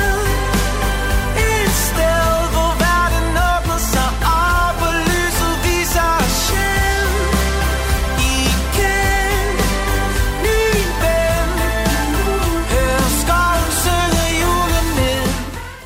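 The festive theme song of a Danish Christmas calendar TV series, aired every evening at 8 pm from 1 to 24 December, plays loud and continuous, a dense full-band arrangement with a steady beat and bright melodic lines running throughout, with no one talking over it.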